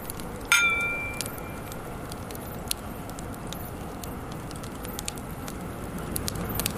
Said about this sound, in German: Fährt mal wieder ein Güterzug im Hintergrund. Der ist perfekt untermalt. Fährt ein bisschen Kohle rum.